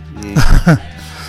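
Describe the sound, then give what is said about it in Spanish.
A single sneeze in two quick bursts: a breathy, voiced build-up followed by a sharp, noisy release, fairly loud against a quiet background, with no talking. “Salud.”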